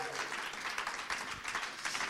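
A crowd applauds steadily, a dense, even patter of many hands clapping at once, sustained at moderate loudness without a break, welcoming a student coming up to speak.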